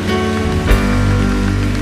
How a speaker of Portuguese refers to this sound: Podemos aplaudir a Jesus, irmão? Vamos dar um forte aplauso a Ele.